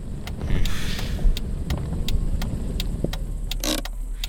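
A car engine rumbles low as the vehicle eases down and comes to a stop, with a series of light clicks ticking over the steady drone. No one speaks.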